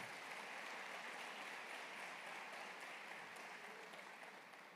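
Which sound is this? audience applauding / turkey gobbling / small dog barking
audience applauding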